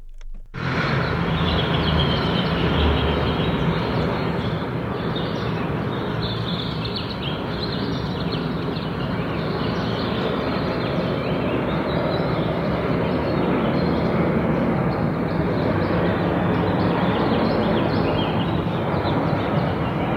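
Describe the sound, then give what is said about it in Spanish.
A dense, continuous roar of microbuses rushing past at dawn on Diagonal San Antonio, loud and unbroken for the whole stretch, with small birds chirping faintly underneath the traffic. “que detrás de la estampida de microbuses se escuchaban los pajaritos?”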